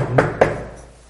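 Two quick, solid knocks on a door, fairly loud, spaced about a quarter second apart, followed by a short fading silence with no voices.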